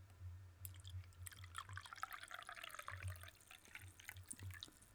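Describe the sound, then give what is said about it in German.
Coffee pours steadily into a cup for several seconds, a continuous splashing trickle over a low background hum, with no voices. “Ich habe jetzt letztens gelernt, dass man anhand des Geräusches unterscheiden kann, ob es warmes oder kaltes Wasser ist.”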